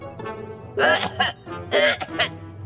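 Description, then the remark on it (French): A spaceship's onboard computer makes two harsh, raspy coughing bursts about a second apart, loud, over a faint steady electronic hum, like a machine sputtering out coughs. “Ordinateur de bord Tu veux nous dire quelque chose Oh, c'est bizarre, gars On dirait qu'il tousse, ton ordinateur”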